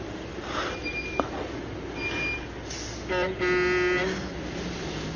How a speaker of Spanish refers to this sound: Es el autobús de la escuela.